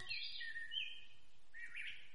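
Small birds, a pair landing on a small pile of rice, chirp in quick, high twittering bursts, a few overlapping calls rising and falling over about two seconds, fairly soft with no one speaking.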